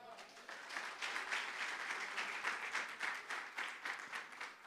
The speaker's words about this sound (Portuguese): Aplauda Jesus.